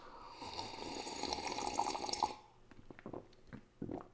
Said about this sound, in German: Was da genau passiert ist, das sage ich Ihnen nach einem letzten Schlückchen koffeinhaltiger Apfelschorle für diese Woche. Prost!